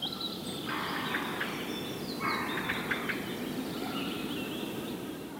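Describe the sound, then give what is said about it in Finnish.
Two bleating, pulsing bursts of common snipe drumming from its tail feathers, each a wavering tremolo lasting under a second, rising out of a steady hiss of outdoor background noise. “Eli, eli tuosta – Tuosta lähdemme jälleen taivaanvuohen vuohen pyrstösulkien ääntä kuulemaan.”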